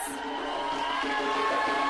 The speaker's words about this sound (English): An enthusiastic crowd welcomes the man who presents himself as the new voice of African unity and independence.